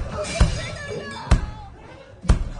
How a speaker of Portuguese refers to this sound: No meio da pancadaria, dá para ouvir o som seco de uma cabeça sendo repetidamente batida contra a parede do quarto.